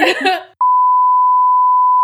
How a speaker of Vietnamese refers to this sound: còn cái ví dụ như chị nói thì anh dân chèn tiếng bíp bíp bíp như thật